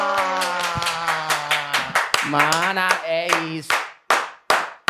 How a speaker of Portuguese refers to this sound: Está no ar mais um Bumba, Meu Cast! Aplausos!